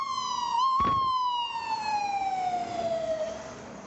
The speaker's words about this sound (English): Now, if that siren could have just come in like a minute, not even a minute, three seconds earlier, would have been perfectly timed. But no, it couldn't.